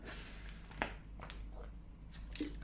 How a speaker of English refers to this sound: bit of ASMR there as I take my sip water.